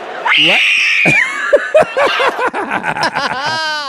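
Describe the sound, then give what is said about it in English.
A fan at an NBA basketball game screams loudly and shrilly at a player shooting free throws, the wailing pitch sweeping up and down, then breaking into a rapid run of choppy, yelping shrieks for about four seconds. “Screaming, yeah. waving of hands, well, regardless.”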